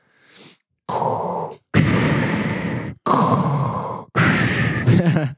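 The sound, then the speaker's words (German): Heavy, rasping breaths drawn in and pushed out right against the microphone, four loud hissing pulls in a slow steady rhythm, a person imitating the sound of breathing through a mask respirator. “Du, du atmest da ziemlich, du äh, waderst also, da hinein, so.”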